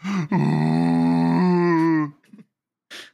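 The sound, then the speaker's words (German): A voice imitates a blue whale's howl: one long, loud, droning moan lasting about two seconds that shifts pitch midway, then trails off into a couple of brief, quieter vocal noises. “Und und dann hört, hört der ganze Ozean den Blauwal heulen.”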